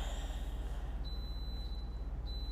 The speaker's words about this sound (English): There's your timer. There's your timer. we were trying to beat that time, but it's okay.